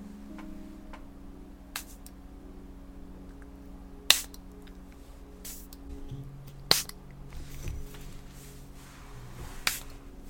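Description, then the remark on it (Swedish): Several short, sharp spritzes from a spray bottle of lavender Calming Pillow Mist, sprayed gently around the listener, spaced irregularly a second or more apart, with a soft steady hum underneath and no talking. “Så jag sprayar den väldigt försiktigt här runt dig nu.”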